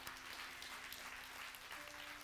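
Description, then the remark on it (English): An audience applauding, a dense, steady patter of many hands clapping at once, fairly soft and even throughout, with no voices over it. “Don't give me a golf clap.”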